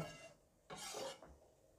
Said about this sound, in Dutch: En dan doe ik de bloemkoolroosjes erin.